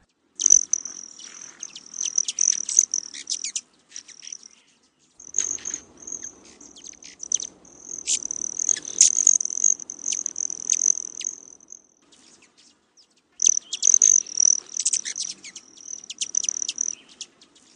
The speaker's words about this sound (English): I want to play you the sound of a broad tailed hummingbird.